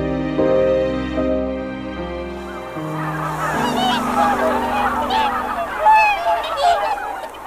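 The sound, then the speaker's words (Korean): A flock of summer migratory waterbirds, such as swans, little egrets and intermediate egrets, honks and calls in overlapping, excited bursts, steady, after a low sustained droning tone fades out in the opening seconds. “여름 철새들이 하나 둘 날아왔다. 고니, 쇠백로, 중대백로는 물론이고 희귀종인 노랑불이 저새도 간혹 눈에 띄었다.”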